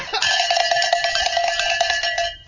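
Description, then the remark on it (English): A hand bell rings continuously for a couple of seconds, shaken rapidly so its bright metallic clangs blur into one loud, jangling peal that cuts off abruptly. “I'll uh, ring the bell real quick.”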